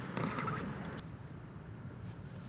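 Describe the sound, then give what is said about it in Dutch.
A male toad gives its release call as it is grabbed by hand: a brief, quiet burst of rapid, pulsing chirps lasting under a second, against a steady background hiss. “als ik nu bijvoorbeeld dat mannetje van deze pad zou gaan vastgrijpen, dan denkt hij, ah, er is een mannetje dat mij wil bestijgen”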